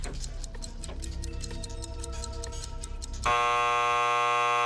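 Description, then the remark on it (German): A countdown clock during thinking time for a quiz question: steady, rapid ticking runs for about three seconds over a low hum, then cuts to a loud, sustained buzzer tone that holds to the end. “Der Countdown läuft.”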